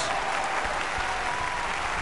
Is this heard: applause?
yes